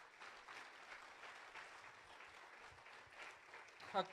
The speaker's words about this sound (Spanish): ¿Cuántos dicen amén y aplauden al Señor?